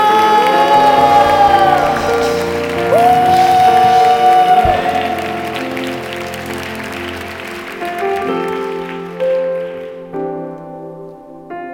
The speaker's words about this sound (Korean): 기대하신 만큼 더 하나님께 영광과 감사의 박수 올려드립시다. 승리의 함성을 주님께